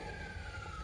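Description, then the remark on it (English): A siren blares steadily outside in the city, its sustained high tone sliding slightly downward over a low rumbling background, muffled. “I'm sorry if you can hear that siren blaring on the outside.”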